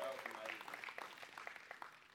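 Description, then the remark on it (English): A church audience claps its hands for a group who had just performed a series of movements, a quick, irregular patter of many overlapping claps, fairly quiet and steady throughout, with a faint murmur of voices beneath. “Y'all give them a hand clap.”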